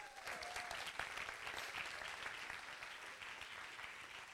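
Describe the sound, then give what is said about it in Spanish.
An audience applauds steadily at the call to applaud the blessing of God, a dense wash of many hands clapping that holds at an even level throughout, with a brief faint whistle-like tone near the start. “Alguien le da un aplauso a la bendición de Dios.”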